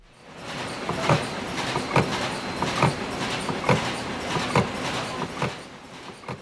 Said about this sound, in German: Eine kleine Maschine in einer großen Fabrik. In der Fabrik rollen Plastikfolien über dicke Walzen und daraus entstehen Plastiktüten, Einkaufstaschen für Aldi, Rewe und andere Supermarktketten in Deutschland.